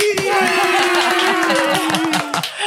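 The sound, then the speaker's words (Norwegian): Steady applause fills the moment, a dense wash of clapping with a sustained tone and rhythmic low pulses running underneath, fairly loud throughout. “Applaus.”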